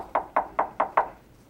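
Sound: knocking on a door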